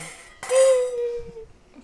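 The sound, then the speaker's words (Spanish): Wine glasses holding red blend wine clink together once in a toast, a bright sharp tap followed by a clear ringing tone that fades over about a second, with a quiet background. “Vamos Bueno, un chinchín. chin, ah.”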